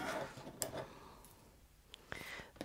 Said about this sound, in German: Ich schneide es einfach ab, wenn ich die Schere. Ja, die Schere ist drunter.